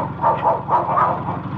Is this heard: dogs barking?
yes